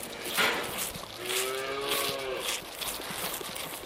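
A cow gives a long, drawn-out moo with a wavering, harmonic tone, set against steady farmyard background noise and a brief rustle at the start.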